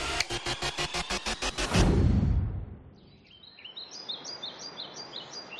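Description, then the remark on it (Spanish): Many birds chirp and call together in a busy high-pitched chorus in a wetland in Doñana, with white sand and shrubs, following a rhythmic pulsing sound and a sweeping whoosh. No one speaks. “aquí nos encontramos arena blanca, arbustos, muchísimas aves de fondo.”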